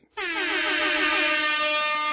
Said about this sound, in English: You deserve it, dog. You, you put 100 episodes in you get the fucking rap horn, yo. You get the fucking rap horn. Absolutely. When you when you do 100 episodes, yo, you get the goddamn rap horn.